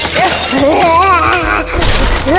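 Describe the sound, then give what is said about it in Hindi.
Household items being thrown crash and shatter in loud, noisy bursts while high, wavering shrieks and wails rise and fall over them, with a fresh smash landing near the end. “चीखते चिल्लाते उन्होंने घर का सामान उठाकर फेंकना शुरू किया”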